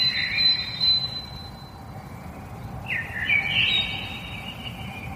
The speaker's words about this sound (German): Man hört jetzt junge Kohlmeisen, dieses Zizizi. Also wenn Sie das am Balkon hören, dann haben Sie, haben Sie Kohlmeisen.